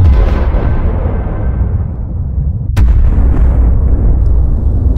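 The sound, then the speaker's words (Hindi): A deep, sustained roar of a massive atomic bomb test explosion in the New Mexico desert, 56 kilometres from the city, rumbling continuously, with a sharp crack partway through followed by more heavy, rolling thunder that fills the whole clip. No voices. “new Mexico के रेगिस्तान में शहर से 56 किलोमीटर दूर इस बॉम्ब का परीक्षण किया गया”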